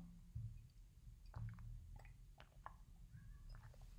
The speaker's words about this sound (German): Und jetzt muss ich mal einen Schluck Wasser trinken, weil ich so einen trockenen Hals wegen diesen scheiß Pollen habe.